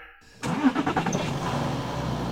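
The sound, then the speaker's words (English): A truck engine cranks and catches after a brief quiet moment, then settles into a steady, close rumbling idle with no voices. “Guess the truck just likes me more.”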